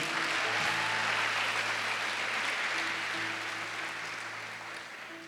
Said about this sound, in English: Clap for the Leiden people.